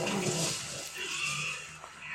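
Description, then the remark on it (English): A harsh, raspy growl of a film raptor rumbles for about two seconds, loud and continuous with a breathy, hissing edge, the raptor itself unseen on screen. “We just see their reactions and hear the growling and the like squishing.”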